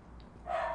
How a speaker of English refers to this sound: Um, pardon the dogs there; they're just having a good time.